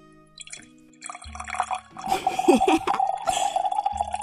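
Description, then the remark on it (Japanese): A sick father urinates with his child's help, a steady trickle streaming into a container, splashing faintly at first and then running fuller for several seconds, with no voices. “ああおしっこがしてんだな分かったよほら”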